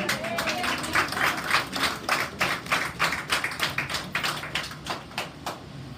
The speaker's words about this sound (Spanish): Fuerte el aplauso,